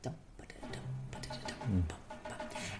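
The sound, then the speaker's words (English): A soft snare drum taps out the steady rhythmic pattern of Ravel's Bolero in light, crisp strokes, played quietly at the start of the piece, with faint low instrumental tones underneath. “So we're going to listen to obviously bolero because bolero is Ravel's bolero is the big snare drum piece. What you hear is it starts really softly.”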